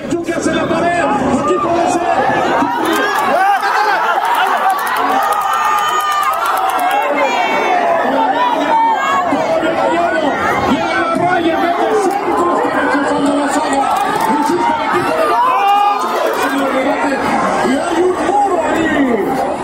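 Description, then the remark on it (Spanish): A dense, steady chatter of many overlapping voices from a crowd of football fans at a fan fest as the first half of a match ends, with scattered louder calls and brief bursts of cheering and applause rising out of the hubbub. “Me muevo por el FanFest que ahora está mucho más lleno pero no se sienta abarrotado”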